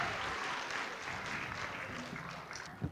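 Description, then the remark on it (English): A crowd claps steadily for a few seconds for someone who has just shared a Bible verse, a dense, even patter of many hands at moderate loudness with no voices standing out. “Round of applause for Regan.”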